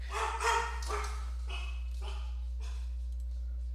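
A pack of dogs at a home barks in a quick flurry of sharp yaps, loudest at the start, then a few scattered, fainter barks trail off over a low steady hum. No one speaks.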